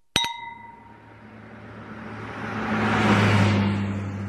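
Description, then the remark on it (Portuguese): Wine glasses clink together twice in quick succession in a toast to Portugal near the start, a bright ringing tone fading out, then a car's engine rumble swells up and grows loud, with no voices. “Um brinde a Portugal. Tchim, tchim!”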